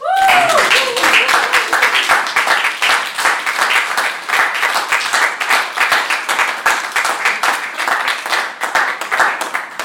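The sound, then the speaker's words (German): An audience applauds steadily, a dense patter of many hands clapping at a fairly loud, even level throughout, with a brief vocal tone or cheer at the very start. “Applaus.”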